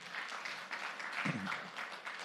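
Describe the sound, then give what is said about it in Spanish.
An audience applauds steadily for the King of Glory after a prayer, a dense wash of many hands clapping at an even, fairly soft level, with a brief low vocal shout rising from the crowd midway. “Dele un fuerte aplauso al Rey de la Gloria.”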